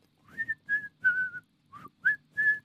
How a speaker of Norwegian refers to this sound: Jeg begynner å plystre igjen.